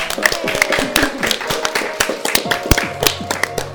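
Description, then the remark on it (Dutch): A crowd claps steadily, many sharp overlapping hand claps forming a dense, lively patter of applause, with faint voices murmuring underneath. “En nu gaan we klappen.”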